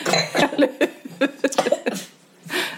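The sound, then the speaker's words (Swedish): A sputtering coughing fit from someone who choked while laughing, a rapid series of harsh, uneven coughs and gasps, ending in a long wheezy breath. “Förlåt, jag satt i halsen. Det var inte hostan.”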